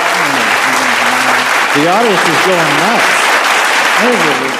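A crowd claps loudly and steadily throughout, with excited cheers and whoops rising above the dense applause for several seconds.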